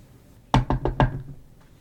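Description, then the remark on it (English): Four quick knocks on a shed door in an even rhythm, fairly loud, with no voices, followed by quiet. “I told you, you don't have to knock.”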